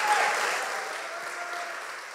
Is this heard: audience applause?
yes